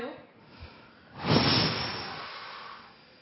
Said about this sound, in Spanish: Lo que es importante hacer antes de comenzar ningún ejercicio de respiración es vaciar los pulmones de aire. Pongan la boca en forma de U y exhalen con fuerza.